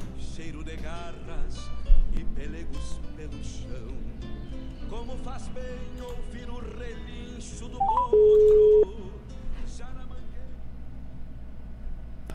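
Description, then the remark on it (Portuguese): A phone number is being dialed to call a guest: a few quick touch-tone beeps, then a steady electronic tone lasting under a second, over a busy background of voices and music. “Chamando o telefone.”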